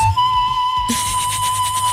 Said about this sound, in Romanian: Naiul nemuritor